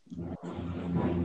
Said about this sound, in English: Yeah, now you're echoing.